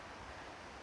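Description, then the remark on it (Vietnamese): A steady, soft wash of ocean surf at a beach, heard by people sitting right beside the sea, a continuous hiss of breaking waves with no voices, heard faintly for just under a second. “khách mời đang được ngồi ngay sát biển”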